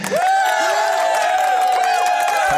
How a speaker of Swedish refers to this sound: Kan vi få en applåd där